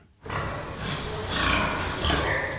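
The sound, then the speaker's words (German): Pigs grunt and squeal together in a stall near Munich where pigs are bred for science under especially hygienic conditions, a dense, continuous chorus of snorting with a few higher squeals rising over it, steady throughout. “Sie stammen aus einem Stall in der Nähe von München. Dort werden Schweine für die Wissenschaft gezüchtet, abgeschirmt von der Außenwelt unter besonders hygienischen Bedingungen.”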